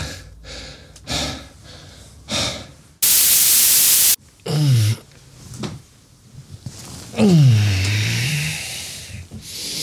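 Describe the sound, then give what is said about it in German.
Someone straining while carrying a Kallax shelf up to the third floor: rough, rhythmic panting breaths and two drawn-out groans that slide down in pitch, interrupted by a loud second-long burst of hissing static. “So klingt es, wenn ich ein Kallaxregal in den dritten Stock schleppe.”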